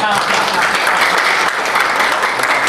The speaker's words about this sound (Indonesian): Tepuk tangan kita.